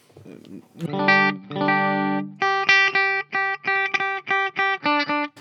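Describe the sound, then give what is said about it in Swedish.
An electric guitar played through the front humbucker wired in parallel: two long sustained chords, then a run of short, evenly spaced chopped chords with a bright, clean-to-slightly-driven tone. “Humbucker längst fram. Och parallell.”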